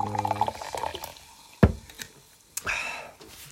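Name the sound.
sparkling water being poured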